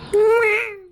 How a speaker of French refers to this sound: Mais oui, le chat.